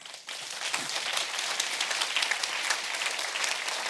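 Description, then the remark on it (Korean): A crowd bursts into steady applause after a brief quiet moment, many hands clapping densely and evenly, moderately loud and sustained throughout with no voices standing out. “다시 누군가 한번 박수를 쳐보세요.”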